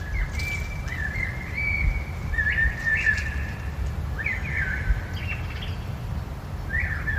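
A common blackbird sings in short, fluting phrases with pauses between them, near a radio station's garden on a mild winter day, over a steady low rumble of outdoor background noise. No one speaks.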